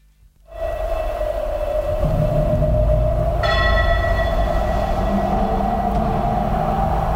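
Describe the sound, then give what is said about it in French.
Small bells ring out at the start of a song released in 1967, their bright chiming sustained over a steady musical drone. A second layer of shimmering bell tones enters partway through. No one speaks. “Avec les petites cloches au début qui vont bien.”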